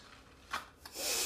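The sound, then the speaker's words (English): A banana is pulled out of a snug tube with a finger held over the hole, giving a squeaky, rubbing drag, two short scrapes followed by a longer airy suction rush as it pulls free. Fairly quiet, with no talking. “And now stick your finger over the hole and pull, and pull it out.”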